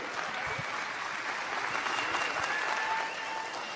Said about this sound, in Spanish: Así que reciben con un fuerte aplauso a mi Diamante Ejecutiva